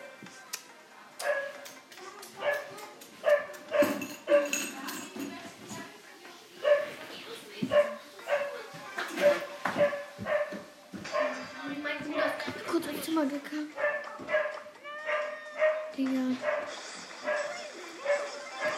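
A dog barks repeatedly in short, insistent bursts, mixed with high whimpering yips, over a busy, clattering background that runs through the whole stretch.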